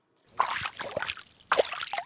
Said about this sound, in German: Ausgesehen tut der Lüschersee wie ein ganz normaler Bergsee. Überall schwirren Insekten, das Wasser plätschert und es grünet ringsum.